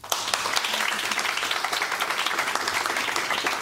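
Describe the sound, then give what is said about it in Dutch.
Sustained audience applause for the people of Kids for Kids, a dense crackle of many hands clapping at steady loudness throughout, with no voices standing out. “En uh, voilà, geef ze maar een applaus, zou ik zeggen.”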